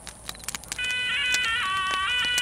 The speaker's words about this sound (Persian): مشغول روبوسی شده بودند که ناگهان تلفن زنگ خورد پدرش به سمت آن رفت